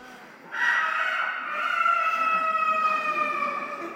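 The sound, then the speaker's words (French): An entirely mechanical rooster on a clock in Strasbourg crows through a special bellows: one long, reedy, organ-like tone that starts abruptly, holds steadily with a slight pitch waver, and stays fairly loud to the end. No one speaks. “Oui, son coq mécanique euh, qui crie euh, via une soufflerie bien particulière, je pense que c'est le point d'orgue du spectacle.”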